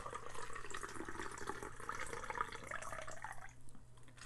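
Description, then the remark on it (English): A cocktail is strained in a steady stream from a shaker tin into a chilled coupe glass with no ice for a few seconds, a soft splashing trickle that tapers off near the end, with no talking. “And then you're going to take that, that coupe glass and you're going to dump the ice because we don't want to serve it with ice, but we just want the glass to be cold and then you're going to strain this out of your cocktail tin”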